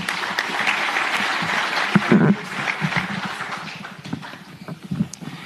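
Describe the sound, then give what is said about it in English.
A crowd at the Agri SA Congress applauds steadily for several seconds as a speaker is welcomed to the podium, a dense patter of many hands clapping at once that fades slightly toward the end. “Let's give her a great round of applause.”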